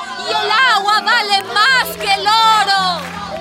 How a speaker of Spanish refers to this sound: La multitud comenzó a moverse. Aplaudiendo y gritando consignas, la población de Quillaricocha avanzó sobre la calle principal del pueblo.